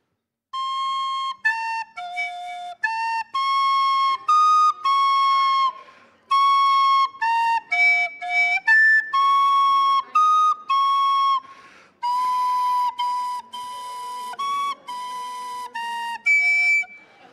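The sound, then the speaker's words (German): A Christmas carol melody played by ear, without sheet music, alone on a high, piping instrument, with steady sustained notes in a slow, even rhythm, fairly loud, with short pauses between phrases. “Ich habe keine Noten, ich spiele jetzt nach Gehör.”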